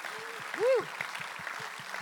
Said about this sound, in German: Du bist ja der Leiter der Gideons und Gideons haben bereits über 2 Milliarden Bibeln verteilt und das allein ist ein Applaus wert an eure Organisation.